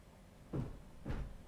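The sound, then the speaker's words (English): A door opens stage right with two dull wooden knocks about half a second apart, fairly quiet against a low background hum, with no voices. “Sound of descending footsteps before the door opens, stage right.”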